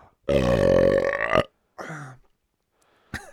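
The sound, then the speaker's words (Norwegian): A long, loud burp rumbles for over a second with a tonal, gurgling quality, followed by a brief softer vocal sound and a short breathy noise at the end. “Ja, det var en uh, rap, hvis det var det du lurte på.”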